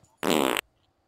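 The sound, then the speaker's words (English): A single loud, buzzy fart sound effect lasting under half a second, with a rapid flapping rumble that cuts off abruptly, followed by near silence. “But you deserve this big fat fart.”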